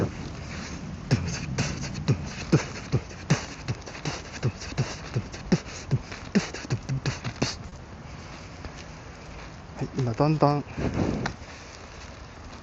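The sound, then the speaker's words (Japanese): A steady run of sharp beatboxing hits performed by a person holding a smartphone in front of their face, about twenty voiced percussion beats at an even tempo, gradually growing fainter as if moving away, followed by a short bit of talking. “今この距離でちょっとボイスパーカーしますけど、どんな感じかな。”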